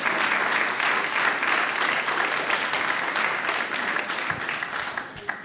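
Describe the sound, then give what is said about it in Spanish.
An audience at a church service applauds steadily, a dense, loud wash of clapping that holds for several seconds before easing slightly at the end. “Dale ese fuerte aplauso.”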